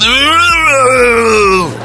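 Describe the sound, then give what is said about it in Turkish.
A man's voice imitates the shout of a bodybuilder lifting weights with one long, strained grunt that holds steady and slowly sinks in pitch, loud and rough throughout. “Oğlum sen bağırmıyor ki ıkınıyorsun bu bağırmak mı ya?”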